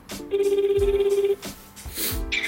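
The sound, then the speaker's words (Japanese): A phone ringback tone on an outgoing call to a company: a steady electronic tone sounds for about a second, pauses, then starts again, clear and fairly loud with no talking. “それでは、えー、今回提案していただいた、えー、企業さんにお話を聞いていきたいと思いますそれでは発信していきます”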